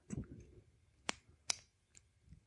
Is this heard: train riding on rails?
no